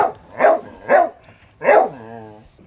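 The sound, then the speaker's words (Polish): A large dog weighing over 40 kg barks three times, deep and loud, with a brief pause before the third bark, then lets out a short, drawn-out whine as the barking stops. “Piesek, 40 kg żywej wagi? Nie no, więcej.”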